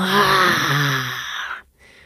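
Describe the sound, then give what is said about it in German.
A single drawn-out vocal growl, a person imitating a tiger's roar, loud for about a second and a half before cutting off abruptly. “Und wenn es dann all seine Wut in deinen Arm, in deinen Unterarm reindrücken kann, manchmal vielleicht sogar mit einem Geräusch versehen, mit einem Tigerbrüllen, so ein”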